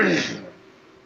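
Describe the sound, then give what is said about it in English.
A single short, raspy cough bursts out loudly and fades within half a second, leaving quiet low background hum; no words are spoken. “I got a cough.”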